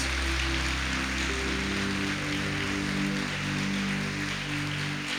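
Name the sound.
audience applauding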